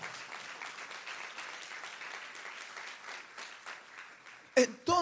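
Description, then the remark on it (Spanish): A church audience applauds the Lord steadily, a dense wash of many hands clapping at an even level for several seconds, then a couple of louder, sharper sounds break in at the end. “Dale aplausos al Señor, se le va a aplaudir.”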